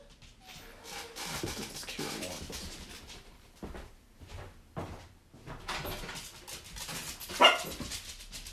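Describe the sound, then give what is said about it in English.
A dog whimpers and cries in short, uneven bursts amid soft rustling and household bumps, with one sharper, louder yelp near the end. “So my dog is crying.”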